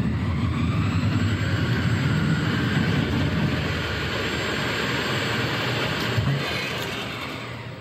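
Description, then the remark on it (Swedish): Battery swap station machinery starts up after a car has been automatically backed into the station to have its battery swapped, running with a loud, steady whirring roar and low rumble that holds throughout, easing off slightly at the end. No one speaks. “Plötsligt vaknade maskinen till.”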